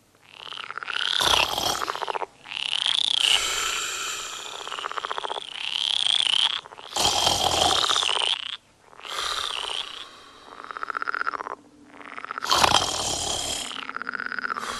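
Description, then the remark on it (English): A loud, dense chorus of frogs croaking at night, overlapping calls swelling in pulsing waves with brief lulls between, continuous throughout with no one talking. “I struggled to stay awake as much as I could, to give her a chance to be deeply asleep before the frog concert began.”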